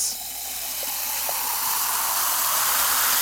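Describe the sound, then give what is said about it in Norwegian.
A short hiss as a can of soda is opened, then a steady fizzing pour into a glass, the bubbly rush growing a little louder and continuing with no talking. “Hvis jeg åpner denne boksen med brus og heller det i et glass”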